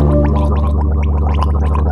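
Someone spits out toothpaste foam, a wet, bubbly gurgle with sputtering splutters that runs steadily for a couple of seconds. Fairly loud, with no talking.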